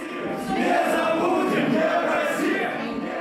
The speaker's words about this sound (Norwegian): Nasjonalistene roper at Memorial bringer skam over Russland.